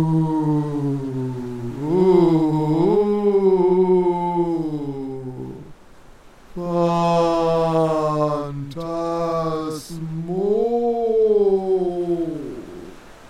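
A human voice imitates howling storm wind whistling over cliffs and through rock crevices, with long, wavering, moaning tones in three drawn-out swells separated by brief pauses. It is loud, with no real waves audible.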